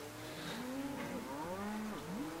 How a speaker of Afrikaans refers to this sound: Hoor daar. Die koeie is onrustig. Hulle weet die reën is op pad.